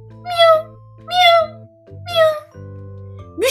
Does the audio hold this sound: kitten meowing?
yes